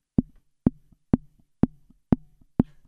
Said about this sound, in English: So I literally barely knocked on the door. Like my plan was, it was just like this.